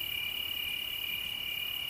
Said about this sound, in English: We're going to listen to the sound of crickets and a meditation on gratitude and letting go. I recorded these crickets at my cabin in late summer.